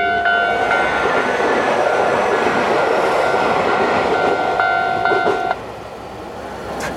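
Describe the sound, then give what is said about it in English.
A commuter train, the second arriving right after the first, rumbles in with steady wheel noise and a high, sustained brake squeal, then the roar drops away abruptly as it comes to a stop. “Oh shit, first train went by, another one's coming immediately.”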